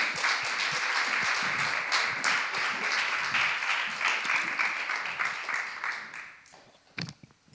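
Sustained applause and cheering from a crowd welcoming a guest, dense rapid clapping that holds steady for about six seconds, then thins and fades, with a few last scattered claps at the end.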